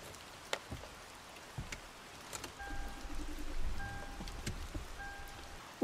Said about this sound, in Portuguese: chega até a sua garagem, entra no seu carro, que não é nada muito luxuoso, apenas um carro popular que atende aos seus requisitos. Você liga o carro,